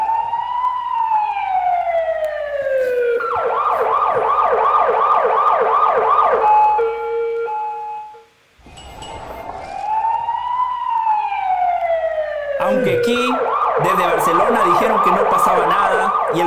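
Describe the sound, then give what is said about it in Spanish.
A loud emergency siren wails with a long rising-falling tone, then shifts into a rapid warbling yelp; it cuts out briefly and repeats the same wail-then-yelp pattern. “Vamos con la sirena, ¿eh?”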